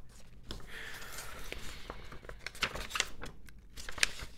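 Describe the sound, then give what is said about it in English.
Paper rattling and crinkling, a busy run of dry rustles and sharp crackles that keeps going unevenly for several seconds, with no one speaking. “Can I, can I make more paper rattling noises?”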